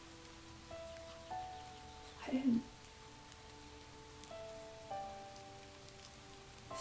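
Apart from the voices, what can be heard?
rain falling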